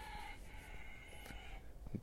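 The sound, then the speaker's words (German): The speaker's own rooster crows once in the background, a sustained, harmonic call lasting over a second amid faint outdoor ambience, moderately loud. “Da ist noch mein Hahn.”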